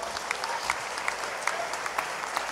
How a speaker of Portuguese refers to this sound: Você pode aplaudir Jesus bem forte?